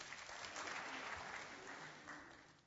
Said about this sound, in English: So give Nora a little round of applause.